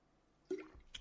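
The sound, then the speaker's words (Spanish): A quiet wet sip of water: a soft liquid slurp with a brief squishy gulp, followed by a faint click of the lips, heard alone without talking. “Otro traguito de agua que cuando llevo ya un tiempo hablando se me empieza a resecar toda la garganta.”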